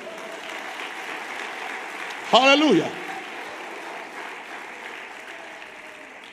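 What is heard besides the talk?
audience applauding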